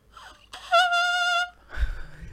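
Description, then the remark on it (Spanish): A saxophone mouthpiece blown on its own gives one sustained, piercing whistle-like squeak lasting under a second, loud, with breathy noise and a faint thump around it. “Tenemos la boquilla, que acá es donde uno sopla.”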